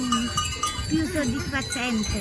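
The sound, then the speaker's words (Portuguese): Goats bleat repeatedly in wavering, nasal calls that overlap one another, with a faint clank of bells, outdoors on a mountain, steady throughout. “Diz que o som das cabras a ajuda a concentrar.”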